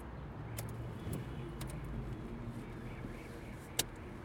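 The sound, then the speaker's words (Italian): Steady low rumble of a car interior on the move, driving to Rogoredo station, road and engine noise droning evenly, with a few faint clicks and a brief light jingle near the end. “Mentre mi accompagna in auto alla stazione di Rogoredo”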